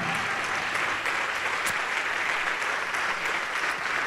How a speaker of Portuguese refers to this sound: Vamos aplaudir mais. E está chegando mais, olha isso. Oh, glória!